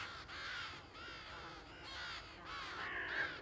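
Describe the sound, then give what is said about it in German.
Harsh, raspy bird screeching fills the scene in a continuous chorus of overlapping calls, loud, with brief dips between bursts and no talking. “Dieses Geschrei, das, das ist richtig unheimlich.”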